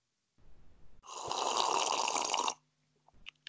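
One long, wet slurp of hot wild cherry black tea with sweetened condensed milk, lasting about a second and a half after a faint intake, with no talking around it.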